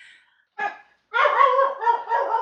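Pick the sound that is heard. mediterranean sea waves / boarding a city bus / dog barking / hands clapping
dog barking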